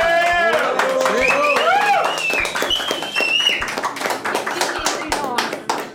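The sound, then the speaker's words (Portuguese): Loud, steady applause: dense, rapid clapping runs for about six seconds, with several voices cheering and whooping over the first half before the clapping carries on alone and tapers slightly. “Palmas para o Coemergência.”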